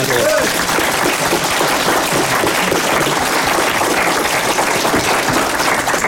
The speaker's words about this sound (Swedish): Och en applåd! Och en applåd.